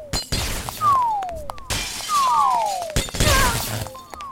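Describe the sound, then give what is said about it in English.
Falling glass light bulbs shatter one after another, raining down in a room: bright crashes layered with tinkling shards and sharp falling whistles, repeating over a few seconds with no voices. “There seems to be a switch at the right side of his room, but bulbs are falling like rain.”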